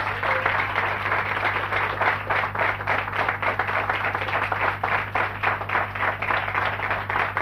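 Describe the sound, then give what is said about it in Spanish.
An audience applauding the Lord steadily, many hands clapping together in a dense, continuous burst that holds for several seconds over a low, steady background hum, with no one talking. “Vamos a darle un fuerte aplauso al Señor entonces.”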